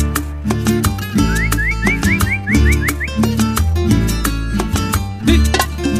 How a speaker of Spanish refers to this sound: luego escucharás a un peón haciendo un canto vaquero, luego escucharás a un peón haciendo un canto vaquero.